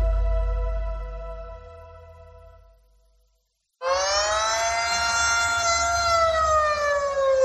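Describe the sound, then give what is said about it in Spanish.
Air raid warning sirens in Ukraine, warning of bombings, wail loudly with sustained, harmonically rich tones, fading out, falling silent briefly, then a second siren blares in abruptly and holds its long steady howl. “Por desgracia, son las sirenas que en Ucrania avisan de los bombardeos que han causado el desplazamiento de millones de personas, la mayoría mujeres y niños.”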